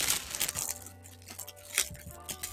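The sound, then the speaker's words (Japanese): A plastic bag crinkles and rustles in irregular bursts of bright, crackly noise, busiest at the start and again near the end, with a low steady hum underneath and no talking. “あ、袋の音がうるさいかしら大丈夫かな”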